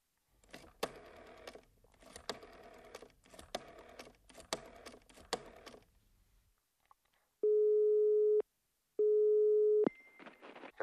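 Two loud, steady telephone ringing tones, each about a second long with a short pause between, follow a stretch of rapid clicking like keys being pressed, as a call is placed to a firm to ask which day a repairman can come. No one speaks.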